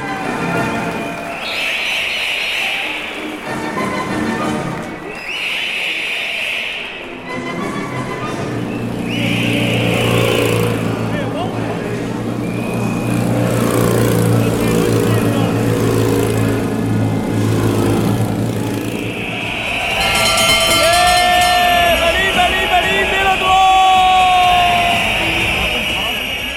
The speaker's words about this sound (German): Pfeifen, Glocken und Motoren, manch einer wird es erkannt haben